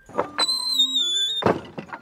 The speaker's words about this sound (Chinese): 正在这时，门开了。